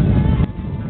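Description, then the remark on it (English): A deep, continuous rumbling roar of rocket engines at liftoff, heavy in the low end and steady throughout, with a slight dip in intensity partway through. “All engines are running.”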